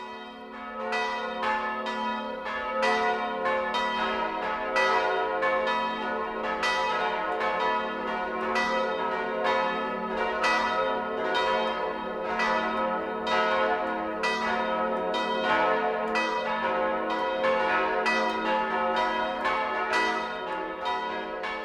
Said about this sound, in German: Es ist 12 Uhr. Das Mittagsläuten kommt heute von der katholischen Pfarrkirche St. Mauritius im oberpfälzischen Mintraching.